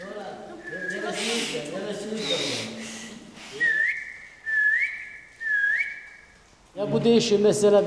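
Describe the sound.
Turkish whistled 'bird language' of the tea and hazelnut farmers of Kuşköy village on the Black Sea, Turkey: three clear, loud whistled phrases with gliding, rising and falling pitch, each about a second long, with voices talking before and after.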